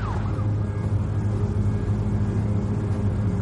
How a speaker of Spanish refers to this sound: En una carretera, Toby se cruza con varios coches patrulla que circulan en sentido contrario.